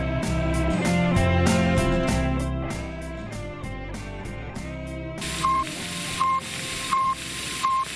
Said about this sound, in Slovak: Keď sa v 60. rokoch minulého storočia ozvalo z vesmíru toto pípanie, tak USA pochopili, že vyslaním Sputnika na obežnú dráhu im Sovietský zväz odkazuje takú jednoduchú vec a to vie, že je schopný z vesmíru napadnúť ich krajinu.